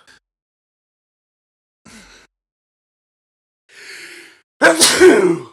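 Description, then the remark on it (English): After a quiet stretch, a short catch of breath and then a longer, hissing inhale build up to one loud, explosive sneeze that bursts out and trails off at the end. “I gotta sneeze.”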